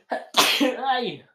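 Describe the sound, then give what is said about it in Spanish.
A single loud sneeze: a short sharp inhale followed by an explosive burst with a voiced, trailing finish. “Salud. Gracias, gracias. Una disculpa por si traen audífonos.”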